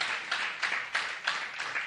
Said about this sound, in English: But I'm telling yeah, we, we can clap for that. Come on. That, that, that's, you clap for God.